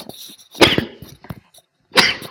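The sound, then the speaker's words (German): Two abrupt, explosive sneezes, separated by about a second and a half, with faint snuffling and breathy noises in between. “Gesundheit.”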